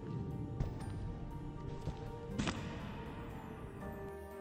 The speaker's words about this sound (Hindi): आवाज किसी की यहां से वहां भागने की आवाज कौन कर रहा है और इतनी रात को मेरे घर में कौन घुस गया